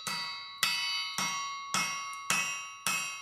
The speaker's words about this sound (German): Das Metallstück wird jetzt auf dem Amboss mit rhythmischen Hammerschlägen glattgeschmiedet.